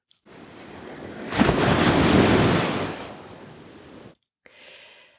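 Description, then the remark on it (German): Ocean waves break on a shore in a broad, rushing wash that swells to a loud crest and slowly recedes, with a faint hiss of surf trailing after a brief pause. “Wir starten heute bei Vollmond und wir treffen uns unten am Meer.”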